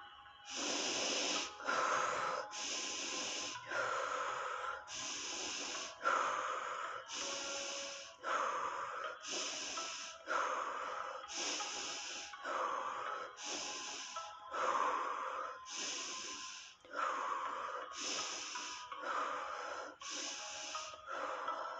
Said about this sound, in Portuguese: Vamos começar com a respiração. Respirando profundo e soltando pela boca. Vamos lá?